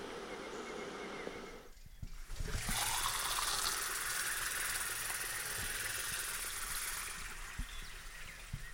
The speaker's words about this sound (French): Ça, c'est le son de l'eau qui coule du lavabo de la salle de bain dans lequel nous nous lavons souvent les mains avec un petit pain de savon saveur abricot.